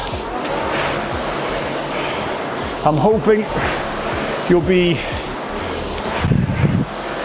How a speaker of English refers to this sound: You should really hear the machine kind of uh, scream, go up in pitch, get louder. The water will be whooshing more if you're on a water rower.